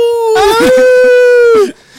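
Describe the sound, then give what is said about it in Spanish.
A person imitates a wolf, giving a loud, sustained howl, one long steady tone held for over a second that breaks off abruptly, with faint background noise underneath. “Le faltó el ¡Au!”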